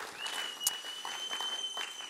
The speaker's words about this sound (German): Komm, lass uns mal virtuell unseren senior einen grossen Applaus geben. Sie machen so einen genialen Job, sie sind extrem für uns.